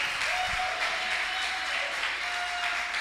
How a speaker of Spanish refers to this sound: Si es lo glorioso, den un aplauso al rey.